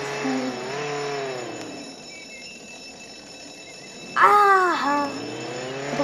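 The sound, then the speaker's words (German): A video game car engine hums and revs, its pitch sliding up and down as it drives off, with a louder, sharper surge of revving near the end. “Ich fahre mit Auto davon.”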